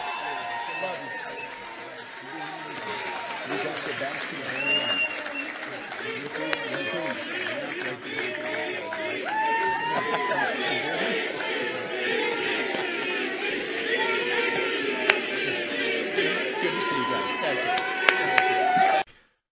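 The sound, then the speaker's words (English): A large crowd at a rally in New Hampshire roars and chants "VP" together continuously, many voices overlapping in a dense, loud wash of shouting and cheering, with a few sharp claps or bangs near the end. “So you can hear the chance for VP in the background there.”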